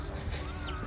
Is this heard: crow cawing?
yes